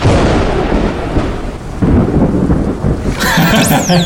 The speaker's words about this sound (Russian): Здесь должен быть звук грома.